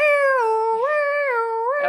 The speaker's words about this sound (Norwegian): Nei, det er brannbil, det.